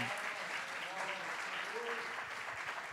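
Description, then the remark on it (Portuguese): A crowd claps steadily in a dense, continuous wash of applause, with a few voices calling out faintly underneath, applauding the Lord with joy at night. “Quantos pode erguer as suas mãos, meus irmãos, e aplaudir ao Senhor com alegria nessa noite?”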